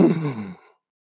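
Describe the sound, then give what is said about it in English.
A single person imitates a theater audience's gasp at a surprising movie scene: one short, breathy intake of air, fairly loud, fading out within a second with no talking around it. “Um, and then when Shuri took the herb and she went around that chair and Killmonger was there, that was like a aud- audible gasp from everybody from in the theater.”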